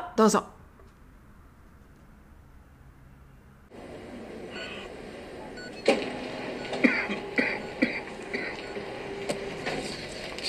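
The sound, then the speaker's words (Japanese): A male patient in a hospital room in the morning gives a short, sharp cough, then after a pause an electric motor starts humming steadily as he raises his hospital bed, with scattered clicks and coughs over the whir. “彼が咳き込みながらベッドを起こしているところに主治医の先生が入ってきます。”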